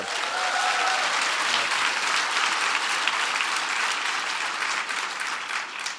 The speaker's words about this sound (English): So give Strive a big round of applause.